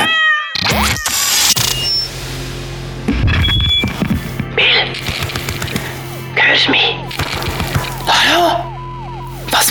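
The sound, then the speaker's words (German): A cat in a cat video meows repeatedly, with a drawn-out, falling cry at the start and several shorter, wavering meows later, fairly loud amid bursts of rustling, scraping noise. “Stört mich nur beim Katzenvideo schauen.”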